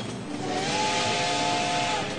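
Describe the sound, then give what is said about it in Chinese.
The whistle of Toto, a small steam train in a children's story, sounds in one long, steady, high-pitched tone over a broad rush of hissing steam, holding at an even loudness for about two seconds, as it pushes on through wind and snow. “小火车托托不怕大风和大雪，努力一直向前开。”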